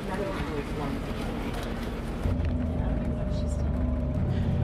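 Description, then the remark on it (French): Steady low engine rumble and road noise from inside a moving 50-seat coach shuttle bus going from the place du 1er mai to the Panoramique des Dômes station at the Puy de Dôme, with a faint hum that shifts and grows slightly louder midway as the vehicle changes gear or speed. “Ça y est, le bus qui nous conduit donc euh, à la gare du panoramique des Dômes est parti de la place du 1er mai.”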